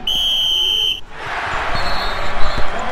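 A basketball buzzer marking the end of the first period, with the score tied 22–22 in a game between Saint-Leu and Sartreville, blares loud and steady for about a second, then cuts out, giving way to a roaring, cheering arena crowd with scattered thumps.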